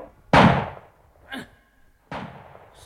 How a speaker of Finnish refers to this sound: No, huonosti sinä sitten ammut, jollei karhu keikattana.